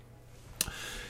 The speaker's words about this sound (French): Alors, vous voyez au son de la clochette l'homme qui porte un grand parapluie, comme je l'ai mentionné, des gants noirs.